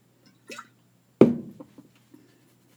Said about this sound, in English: I'm gonna sip a beer.